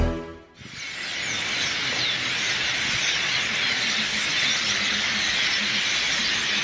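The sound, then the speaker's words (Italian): A huge flock of starlings calling at once in Rome, heard from an office, a dense, continuous wall of high, shrill chattering and squeaking that swells in after a brief moment and stays loud, with no voices. “Stormi di storni su Roma Capitale”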